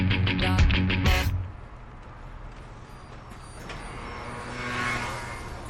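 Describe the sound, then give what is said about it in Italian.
In the morning, a city bus pulls in near Piazzale dei Cinquecento by Roma Termini station in Rome, Italy, with a loud harmonic engine roar, then a sharp hiss of air brakes releasing, followed by a steady rumble of street traffic and other vehicles. “Io sono arrivato con l'autobus e sono sceso vicino Piazzale dei 500 e mi è bastato fare un piccolo tratto di via Marsala per trovarmi sulla destra il grande corridoio centrale della stazione.”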